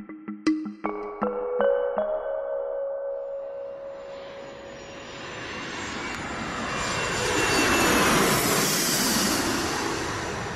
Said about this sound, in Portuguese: Este é o som do avião privado que está ao serviço de Isabel II. A rainha viajou esta segunda-feira do castelo de Balmoral para o castelo de Windsor